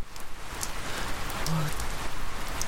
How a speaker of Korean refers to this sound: 배가 고프다 못해 어쩌면 죽을지도 모르겠구나 싶었을 때 비가 내리기 시작했다.